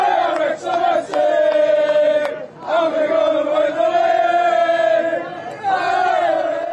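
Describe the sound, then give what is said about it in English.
A large crowd at a team bus parade chants and sings in unison, loud and sustained, with a few short breaks between drawn-out phrases, sounding boisterous. “Maybe a few beers sunk in that crowd there”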